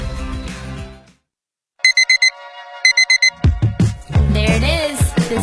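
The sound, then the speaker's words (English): An electronic alarm clock beeps loudly in two quick bursts of rapid, high-pitched beeps, set between a musical passage and a busier, bustling stretch of sound. “sound signaling your morning has begun.”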